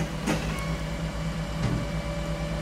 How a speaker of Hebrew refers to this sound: טוב, למשאית הזבל. היא באה, עושה המון רעש, חוסמת את הכביש, כולם מתרכזים, היא לוקחת את הזבל ונוסעת, ויותר לא צריך לחשוב עליו.